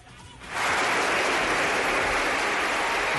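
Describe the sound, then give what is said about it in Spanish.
Sustained applause from a crowd bursts in after a brief quiet moment and continues steadily, loud and dense, with no voices standing out. “No pararemos de aplaudir.”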